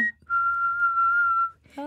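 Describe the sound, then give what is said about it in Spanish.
A person whistles one long, steady, eerie note lasting over a second, imitating a ghost, clear, with brief bits of talking just before and right after it. “Uy, no mames, pero no, no silbaron en ese momento.”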